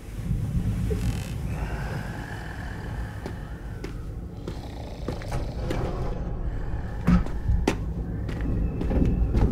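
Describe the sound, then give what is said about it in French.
Strong wind of an approaching storm roars and buffets steadily throughout, a dense low rumble with scattered sharp rattles and knocks, growing slightly louder toward the end, with no voices. “saloperie de vent. La tempête s'annonce terrible.”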